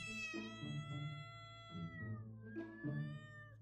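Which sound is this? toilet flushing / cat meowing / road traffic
cat meowing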